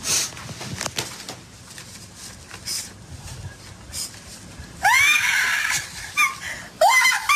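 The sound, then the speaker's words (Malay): A mother lets out loud, high-pitched excited screams on getting a surprise gift from her child, one long shriek followed by a shorter burst, rising sharply above a low, murmuring background of indistinct sounds. “Siapa tu yang jerit?”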